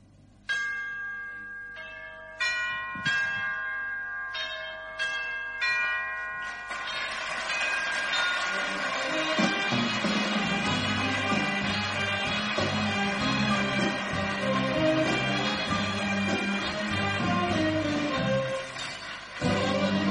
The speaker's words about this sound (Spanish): llorando la muerte del torero en esta bella y quejumbrosa canción